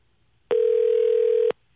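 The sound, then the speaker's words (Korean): A telephone dial tone as a radio host places a call to a listener: one steady, mid-pitched electronic hum that starts abruptly, holds evenly for about a second, then cuts off into quiet. “직접 전화를 걸어서 한번 여쭤볼게요.”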